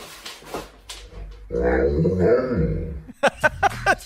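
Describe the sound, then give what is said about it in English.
A dog walking up behind a woman gives a drawn-out, wavering vocalization whose pitch rises and falls like a spoken phrase, sounding as if it says "Where are you going?", loud, followed by a few short, sharp bursts of sound. “And then her dog walks up behind her and says.”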